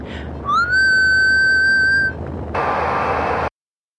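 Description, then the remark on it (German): A single sustained whistle into a radio microphone, sent on 3105 kilohertz from a small Lockheed aircraft about 200 miles away, rising briefly at the start and then held steady for about a second and a half, followed by a short burst of harsh radio static before cutting off. “Erbitte Peilung von 3105 Kilohertz zur vollen Stunde. Pfeife dann ins Mikro, 200 Meilen entfernt. Pfeife jetzt.”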